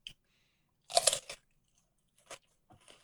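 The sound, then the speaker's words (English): A loud, crunchy bite into a wet, firm pickle, followed by a few softer chewing crunches spaced out over the next couple of seconds, with no talking. “Oh God, that crunch! It's it's so much crunch.”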